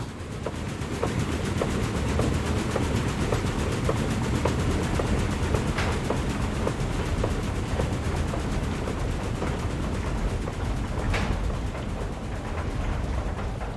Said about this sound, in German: Alles ist besonders an dieser windgetriebenen Mühle in Potsdam.